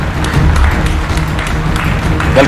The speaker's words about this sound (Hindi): ऐसे प्रतिभावान और आज के जमाने में परिवर्तन लाने के लिए अपने आप से अपने मन से एक दृढ़ निश्चय वाले व्यक्ति को प्लीज तालियों के साथ उनका स्वागत कीजिए